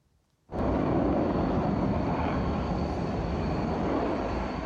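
Fighter jets fly over the Presidential Office in Taiwan during a military parade rehearsal: after a brief moment of quiet, a loud, dense engine rumble cuts in abruptly and holds steady and powerful to the end, with no voices.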